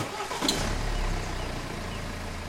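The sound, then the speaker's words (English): A Lexus car engine turns over with a sharp burst, then settles into a steady low rumble, with no voices present. “almost on cue, the Lexus engine roared into life.”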